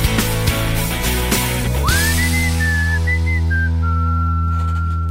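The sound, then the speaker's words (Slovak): At the end of a song, a clear, high whistled melody enters about two seconds in and glides through a few sustained notes over a held musical chord, following a brief burst of rhythmic music with percussion. “A no takto asi dopadneme v prípade aj iných ľudí, že si môžeme naozaj iba pískať.”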